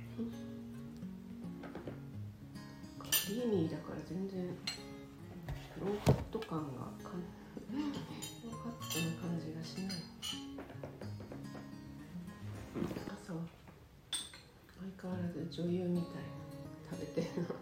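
Dishes and cutlery clink and tap now and then at a breakfast table in a long-established hotel, with chair sounds and a few sharp knocks standing out, while people chat throughout.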